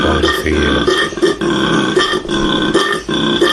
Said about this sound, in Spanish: Y ahora os dejo una imagen de un koala que tiene hipo. Se conoce que el bicho ha comido fuerte y no ha hecho bien de la digestión. Mirad, mirad el koala.